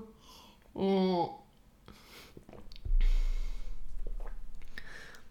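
Someone takes a drink of water, with a brief voiced hum followed by a couple of seconds of soft sipping and swallowing noises, no talking.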